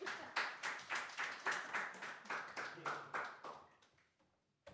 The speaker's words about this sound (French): Amen. Vous pouvez l'applaudir.